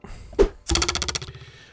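An arrow sound effect, played when pinning a news item: a brief soft thump, then a sharp hit that breaks into a fast, rattling vibration, quivering and fading out over about a second. No voices.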